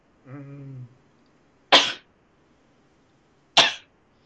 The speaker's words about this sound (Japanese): くしゃみしました。すいません。